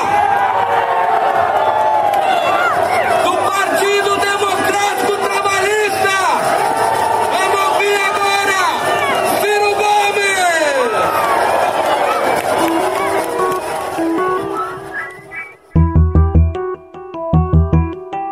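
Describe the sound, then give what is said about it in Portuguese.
A large crowd at a protest calling for Jair Bolsonaro's impeachment on Avenida Paulista, São Paulo, boos and jeers Ciro Gomes as he climbs onto a sound truck to speak, many voices shouting and whooping over one another. Near the end the din gives way to a few seconds of music. “As vaias e xingamentos contra Ciro foram condenadas por representantes da esquerda que pregam a união nesse momento em que o inimigo comum é Bolsonaro.”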